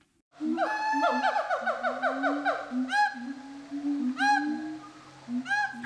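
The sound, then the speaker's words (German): Gibbon calls: a fast run of rising, whooping notes, then several louder, separate sweeping hoots spaced a second or so apart, clear, with no one talking. “Und es klingt eigentlich auch erstmal gar nicht nach Affe.”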